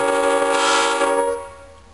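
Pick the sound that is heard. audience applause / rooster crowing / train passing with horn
train passing with horn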